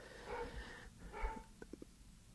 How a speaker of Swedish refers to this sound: Hör du min hund mm. nu? Eller? Ja, det gör jag. Ja, jag tänkte det för att han skäller i hallen men jag ska bara...